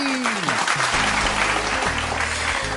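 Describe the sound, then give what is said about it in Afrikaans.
An audience claps steadily for a quiz winner in a dense, continuous burst of applause, with a low tonal hum and some faint background sounds running beneath the clapping. “Dames en here, kom ons klap hande vir ons wenner,”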